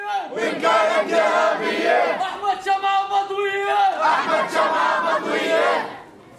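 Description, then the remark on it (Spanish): A dense crowd of men at a funeral, pressing around the body wrapped in red and white cloth and reaching out to touch it, shouts and chants together, loud and continuous, with a sustained collective cry rising in the middle before the voices surge again and cut off. “Es casi imposible avanzar entre la multitud.”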